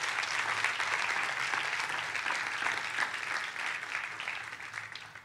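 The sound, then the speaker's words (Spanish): An audience at a church service breaks into sustained applause for God, a dense, steady wash of clapping from many hands that holds at an even level throughout without any talking over it. “den un fuerte aplauso a Dios por eso.”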